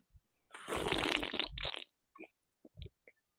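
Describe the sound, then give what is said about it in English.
A loud slurp of tea, drawn out and airy for over a second, followed by a few small wet mouth clicks and a swallow. No one speaks. “Mmm, that's good tea.”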